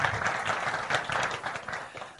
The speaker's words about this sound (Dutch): Zullen we hem applaus geven?